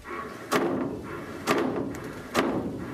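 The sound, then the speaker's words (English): Three sharp metallic bangs from water hammer in plumbing pipes, spaced about a second apart, each a hard knock that rings briefly before fading, with no voices. “So if you're hearing banging in your pipes that sounds like this,”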